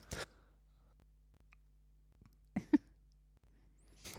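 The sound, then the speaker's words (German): A few brief, muffled coughs break an otherwise quiet stretch: one at the start, a quick pair in the middle, and another at the end. Nobody speaks. “Äh, ich muss mal eben husten, Entschuldigung.”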